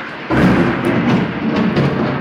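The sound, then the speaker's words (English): A loud thunder clap bursts in abruptly and rolls into a sustained, heavy rumble that fills the rest of the moment, powerful, with no voices over it. “That was thunder.”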